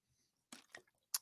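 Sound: drinking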